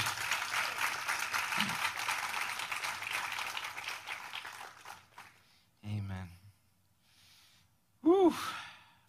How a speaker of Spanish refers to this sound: Vamos a darle un aplauso fuerte